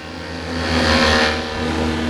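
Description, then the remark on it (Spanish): A failing airplane engine drones with a steady, low hum, swelling louder midway before easing back slightly. No voices accompany it. “que no se dio cuenta que los motores de su avión empezaban a fallar.”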